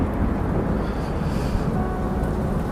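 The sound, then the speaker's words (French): A deep, steady rumble like a thunderstorm rolls on without a break at the start of a song, heavy in the low end with a faint windy hiss on top. No voices are heard. “Qui met un orage au début de son”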